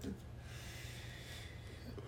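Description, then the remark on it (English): A single drawn-out snore, a low rasping rumble that holds steady for a couple of seconds, with no talking over it. “and she's sleeping to the very sounds of snores.”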